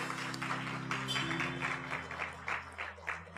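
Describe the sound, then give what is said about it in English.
An audience claps steadily for a few seconds in honor of the speaker's father and mother, a soft, dense patter of many hands, with low sustained musical tones humming underneath. “Let's give the Lord a round of applause for them.”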